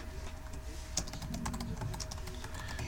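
Quick bursts of typing a search on a computer keyboard, a run of crisp key clicks in an uneven rhythm over a low steady background hum.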